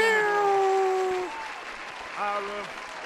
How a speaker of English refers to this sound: Oh man, round of applause for our Generation Z.